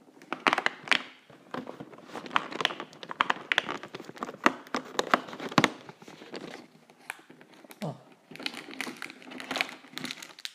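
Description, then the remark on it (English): Someone opens door number two of a Cadbury Heroes advent calendar on the 2nd of December: a steady stretch of crisp cardboard crackling and foil crinkling, irregular sharp snaps and rustles over about ten seconds, with no talking. “I just remembered that I haven't opened door number two of my advent calendar, so that's what I'm going to do right now.”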